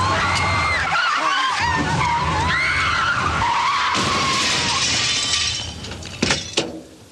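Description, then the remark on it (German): A car's tires screech in a long, wavering skid, then a loud crash as it smashes into the shop window of a fur store, glass shattering with a few sharp final impacts. “Das Auto ist in ein Pelzgeschäft gekracht.”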